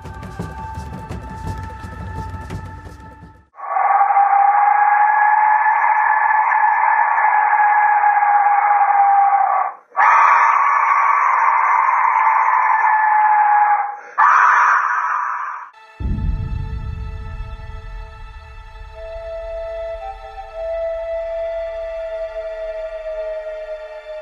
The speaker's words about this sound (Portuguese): Portugal, bota para tocar aí o som de um apito da morte asteca